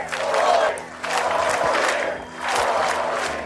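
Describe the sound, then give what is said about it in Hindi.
A large crowd of Trump supporters at the Republican National Convention chants slogans in support of Trump during his speech, rising from their chairs, in loud, rhythmic surges with clapping mixed into the roar, the voices swelling and dipping in repeated waves throughout. “Trump के इस भाषण के बीच उनके समर्थक बार बार कुर्सियों से उठकर ट्रंप के समर्थन में नारे लगाते और ताली बजाते नजर आए”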